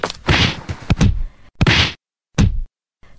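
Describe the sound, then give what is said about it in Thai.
Villagers beat a fox: a flurry of loud whacking blows, several sharp thwacks in quick succession followed by a few more spaced hits with short silent gaps between them. “พอดีกับที่ชาวบ้านวิ่งมาถึง ต่างช่วยกันทุบตีเจ้าหมาจิ้งจอกเป็นการใหญ่”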